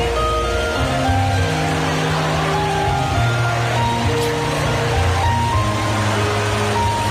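A steady, dense rush of rainwater cascading down inside a shopping mall, filmed on a phone, fills the space without pause, while sustained instrumental music played there sounds underneath, partly drowned by the roar of the water.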